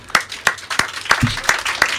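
An audience applauding, with sharp, bright claps landing in a steady rhythm of roughly three per second over a dense patter of scattered hand claps, moderately loud and without voices.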